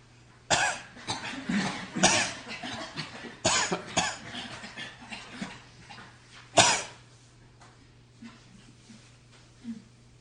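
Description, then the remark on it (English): Several sharp, forceful deliberate coughs, made as a breathing exercise to feel the end of the exhale, burst out at irregular intervals, with softer breathy throat sounds in between and a faint steady hum underneath; no one speaks. “And the best way to feel that is just to cough.”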